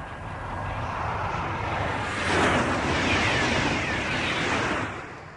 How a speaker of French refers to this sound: Entre Courtalin et Tours, ce matin, le TGV Atlantique a de nouveau battu son record du monde de vitesse à 515 km/h 300. Première évidence, un train à ce train-là, ça fait un bruit d'avion.